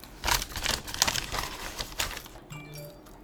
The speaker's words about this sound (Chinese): 还好，但是我觉得你可能要加上那个纸袋的声音，大家比较会比较会有一点那个 idea。